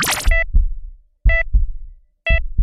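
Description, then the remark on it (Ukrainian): Three steady heartbeats about a second apart, each a deep double thump paired with a short electronic beep like a heart monitor. Fairly loud, with no voices. “І цьому дуже сильно допомагають, якщо ми вже говоримо про AI, говоримо про дані, допомагають е, носимі пристрої, wearables, які, наприклад, можуть міряти такі штуки, як е, пульс.”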